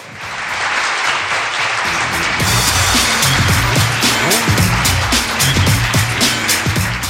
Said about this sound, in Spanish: Pues un aplauso para ellos de nuevo y un aplauso para todos vosotros, amigos oyentes, que estáis ahí escuchando y, cómo no, para todos esos conductores de Avanza que nos llevan en su autobús. Un aplauso para ellos, sí señor.